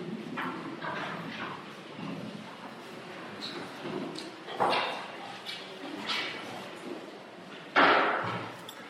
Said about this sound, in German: aha, da haben wir nicht vielleicht kann man da irgendwas machen, dass die Tür nicht zuschlägt.